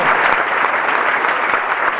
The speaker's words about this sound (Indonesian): Tepuk tangan bagi Yesus.